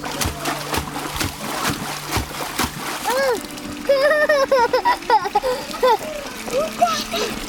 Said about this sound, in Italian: Bimbi che giocano nel fango, che sguazzano nelle pozzanghere, che osservano tritoni nel laghetto, che si arrampicano sugli alberi, insomma, fanno scuola nel bosco.